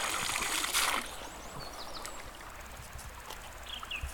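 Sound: flowing river stream water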